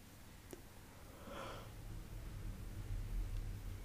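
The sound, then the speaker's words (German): A single soft, breathy yawn, a brief drawn-in rush of air, set against a steady low hum with no talking. “Ich gähne nicht, weil mir langweilig ist.”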